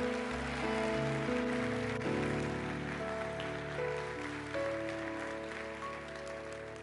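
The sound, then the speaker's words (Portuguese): An audience applauds in praise of God steadily for several seconds, a dense crackling patter of many hands over sustained keyboard chords that shift now and then, with no clear voices standing out. “Você devia glorificar e aplaudir o Senhor dando um grito de glória a Deus, meu irmão.”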